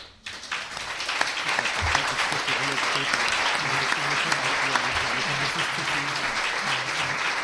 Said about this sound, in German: Applaus